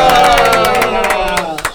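A burst of applause with cheering from a crowd, loud and steady with sharp clapping throughout, easing slightly toward the end.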